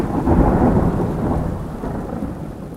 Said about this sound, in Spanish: Y en medio de esta conversación empezó a llover.